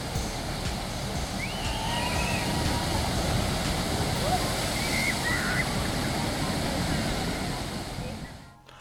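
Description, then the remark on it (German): Steady, loud rush of splashing water from a classic log flume ride at a theme park, a continuous churning roar with faint voices drifting through, fading out at the very end. “Als klassischer Logflume firmiert La Rivière Sauvage, der mit einem hohen Nässegrad und einer eher unspektakulären Fahrt und Themen glänzt.”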